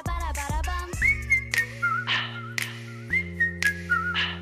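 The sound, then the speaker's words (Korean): A melodic human whistle carries a tune over soft instrumental backing, with clear sustained notes and short gliding phrases repeating at a relaxed pace, moderately loud. “사람이 내는 악기 소리라고 하면 될까요? 이 휘파람 소리는 우리 대중가요에도 단골로 등장합니다.”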